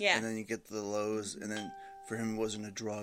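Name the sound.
phone notification chime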